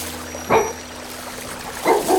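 A dog, said to have run over from a neighbouring village, barks twice, two short, mid-pitched woofs spaced over a second apart, with no talking, only a faint steady hum underneath.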